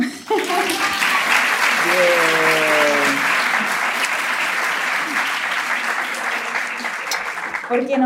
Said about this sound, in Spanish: Gracias a todos por aplaudir. Gracias Para la gente del podcast, de repente no escucharon los aplausos.